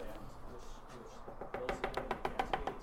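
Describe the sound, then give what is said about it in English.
A voice rapidly imitates wooden knocking, a quick, steady burst of loud clicking taps that starts about halfway through after a soft background murmur. “like but 10 times that loud like the loud the most the wood knocking the fastest”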